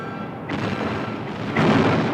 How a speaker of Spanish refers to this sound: Y empieza el cruce artillero. Los ingleses devuelven el fuego. Durante unos minutos hay un cruce tremendo de cañonazos.